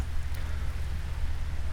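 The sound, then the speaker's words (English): Steady rain hisses outdoors on a summer morning, a dense, continuous patter spread evenly over the whole moment, with a deep low rumble underneath and no voices. “So stick around as Steve and I set out on a rainy summer morning with Twan.”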